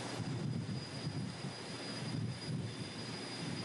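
A frigate's 25,000-horsepower gas turbine roars steadily as the ship picks up speed, a broad rushing drone with a thin high whine riding on top and a deep rumble underneath, continuous with no voices.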